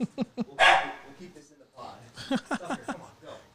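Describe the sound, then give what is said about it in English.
A single loud dog bark from a dog named Tucker rings out early on, sharp and bright, while people talk before and after it. “Tucker, come on. You gotta go out, man.”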